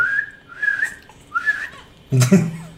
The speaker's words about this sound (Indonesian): Coba siul. gua bisa siul. Depan kamera nggak bisa.